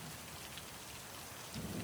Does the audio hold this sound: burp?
no